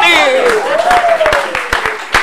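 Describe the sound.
Applause from an audience, with loud, irregular claps over a steady wash of noise, while a voice sings or calls out in a long, sliding tone.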